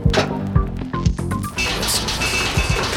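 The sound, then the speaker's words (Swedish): A front door slams shut with a couple of heavy, hollow thuds, then a dense rumbling clatter carries on afterward. “Motorljudet försvann Ytterdörren.”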